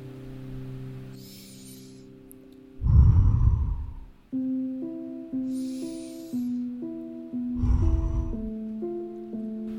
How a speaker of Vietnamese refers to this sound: mang tất cả nhận thức của bạn vào hiện tại và hãy cùng hít một hơi thở thật sâu nhé